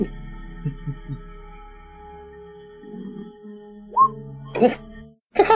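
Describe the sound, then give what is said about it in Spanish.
A person snoring in low, rumbling bursts over a steady background hum, with a brief whistly rise and a couple of sharper, breathy noises near the end. “Está roncando el culiado, weón.”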